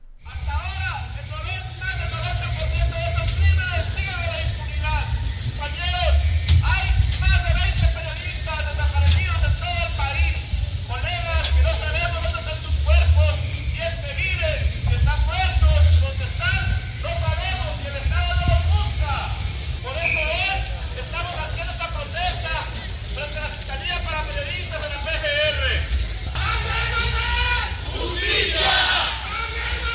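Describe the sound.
A protest march crowd chanting and shouting in unison, a dense wall of many voices with rhythmic rises and falls, steady and loud throughout, with a low rumble underneath.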